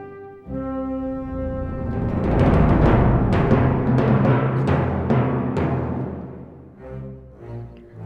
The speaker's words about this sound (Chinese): 我们听到的音乐就是猎人的主题哦。除了管弦乐团演奏的旋律，各位小朋友，你们有没有听到鼓声呢？ 猎人们拿着猎枪要来找大野狼，演奏的鼓声的乐器叫做定音鼓，是属于打击乐器。